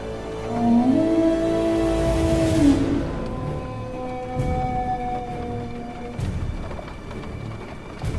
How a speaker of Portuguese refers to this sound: Quando eles, quando eles estão se aproximando dos pedaços de frango, vocês ouvem um uivo. Mas não é qualquer uivo. Vocês ouvem.